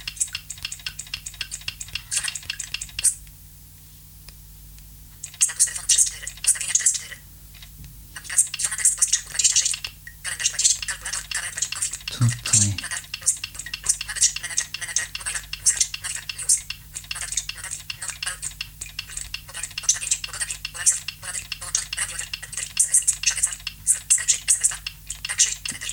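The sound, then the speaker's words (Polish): A smartphone screen reader scrolls through the phone's list of apps, its rapid synthetic voice chattering item after item with small clicks, broken by a couple of short pauses, steady. “Tutaj musimy się trochę poprzewijać.”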